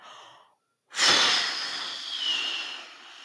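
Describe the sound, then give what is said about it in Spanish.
A person imitates a wolf blowing hard at a little house in a story told in Spanish: after a brief soft breath and a pause, one long, forceful, hissing exhalation roars out, steady and breathy for over two seconds before fading. No speech. “Y sopló y sopló, pero no movía nada la casita.”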